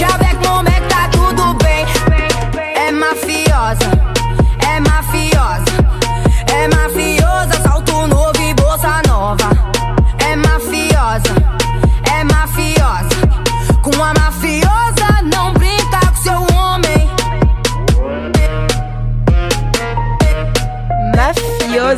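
A loud, continuous song featuring a guest singer, played on the radio show Afrofarage, with sung vocals riding over a heavy, steady bass beat and dense percussion, playing without pause apart from a brief drop in the low end near the start.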